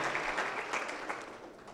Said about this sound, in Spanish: Amén. denle un aplauso al Señor.